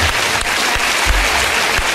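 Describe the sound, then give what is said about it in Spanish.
A crowd applauds steadily, a dense, loud wash of clapping that fills the whole moment without pause, applauding a woman from Andalusia who is being given a Bluetooth speaker. No voices stand out above it. “Bueno, pero te llevas este altavoz Bluetooth y el aplauso de tus paisanos.”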